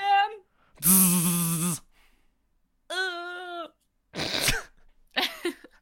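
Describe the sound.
A person vocally imitates a dying bee with a few strained, buzzing, wavering bursts, one long and loud, then shorter sputtering ones separated by brief pauses.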